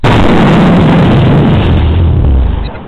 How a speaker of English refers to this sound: You know, I mean bombs like this, y'all.